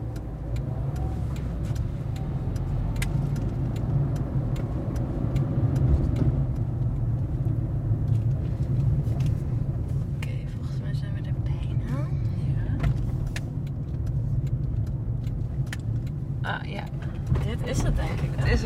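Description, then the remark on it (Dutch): Steady low engine rumble from inside a moving rented Toyota car, a constant drone at an even level throughout with occasional small clicks and rattles over the top. “De gehuurde Toyota functioneert als rouwwagen.”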